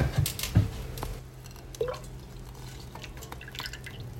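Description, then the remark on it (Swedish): Milk and cream are poured into a saucepan, a splashy gush at the start settling into a softer trickle and faint drips, with no talking. “Då tar vi mjölken och grädden och häller i kastrullen här och sen låter vi den värmas upp till kokpunkten.”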